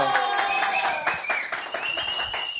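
A short burst of applause, dense steady clapping holding at an even loudness for a couple of seconds, with some higher-pitched tones mixed in.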